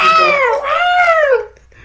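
A single long, drawn-out cat meow with a wavering, bending pitch, fairly loud, sounding alone with no talking over it.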